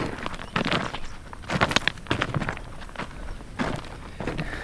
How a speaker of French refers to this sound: C'est magnifique, on est sur le bord du cratère sur la crête du volcan et on foule au pied euh, cette roche rouge, cette roche volcanique.